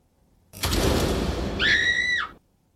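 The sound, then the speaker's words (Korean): A loud, sustained scream of about two seconds, a well-known scream inserted in the intro of a song. It rises out of a harsh, noisy wash into a piercing high wail that bends downward before cutting off abruptly. No one speaks. “아주 유명한 비명소리죠. 이 비명소리가 인트로 부분에 삽입된 노래 제목을 맞추는 객관식 퀴즈였는데요.”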